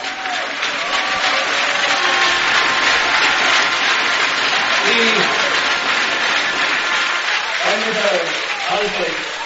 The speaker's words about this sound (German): Filmballbesitz und nochmal einen fetten Applaus für die Defense.